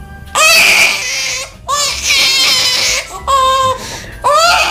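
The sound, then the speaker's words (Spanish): A toy baby doll cries in four loud, wailing bursts separated by brief pauses, alone with no talking. Each cry rises and falls in a bright, electronic-sounding pitch. “Pedimos, por ejemplo, que si el niño o la niña piden un bebé de esos que hacen lo mismo que los de verdad, que lloran cuando tienen hambre, que mm, hacen pis, etcétera, pues que vale, que complazcan, que se lo lleven, pero que eviten que sea este.”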